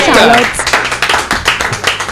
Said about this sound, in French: bon, en tout cas, on applaudit notre invité, justement,